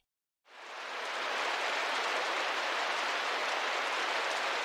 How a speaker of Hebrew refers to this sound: אתם שומעים את טפטוף הגשם הזה? דבר מאוד נדיר באזור שבו אנחנו מדברים.